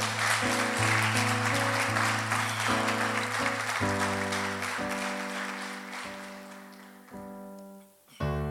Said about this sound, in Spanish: Eso merece un aplauso. De verdad.